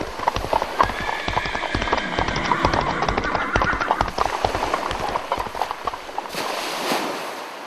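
A horse gallops steadily, hooves pounding in a fast, continuous rhythm that stays loud throughout, with a faint voice or tonal sound running underneath.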